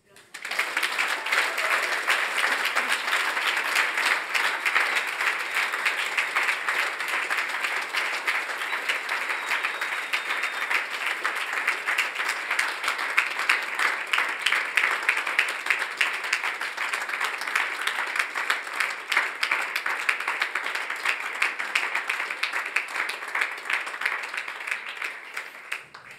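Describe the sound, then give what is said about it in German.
A church audience breaks into sustained applause for its community leadership team, a dense, steady wash of many hands clapping that holds at an even, fairly loud level for nearly half a minute before stopping abruptly. “Und, und da machen wir jetzt einen Applaus.”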